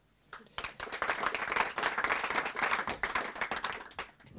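An audience breaks into applause, a dense, steady patter of many hands clapping that starts abruptly, holds for about four seconds, then tapers off.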